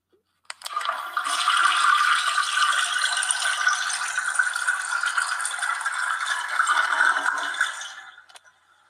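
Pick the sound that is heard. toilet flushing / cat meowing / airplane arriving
toilet flushing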